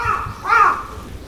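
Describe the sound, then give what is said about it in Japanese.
A crow caws loudly and harshly, one drawn-out call rising and falling in the middle of the moment, with faint background murmur and low rumble around it. “すごいカラスが鳴いてます”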